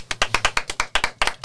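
Brisk, steady hand clapping to encourage a singer, about a dozen sharp claps in quick even rhythm, like a short burst of applause from a few people. No one speaks over it.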